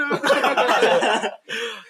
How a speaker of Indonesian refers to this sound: Uh, Aduh, batuk, batuk lagi. sorry, sorry, sorry.